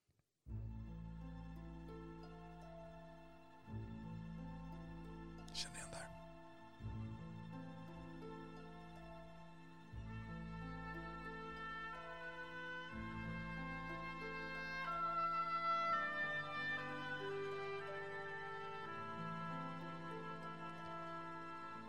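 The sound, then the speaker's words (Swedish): A sweeping orchestral theme from the film Doctor Zhivago plays on its own for about twenty seconds, with sustained strings and a steady low bass, growing fuller and louder toward the end. “Jag tänkte spela hans Dr. Chivago hur, för att höra lite hur hans musik lät.”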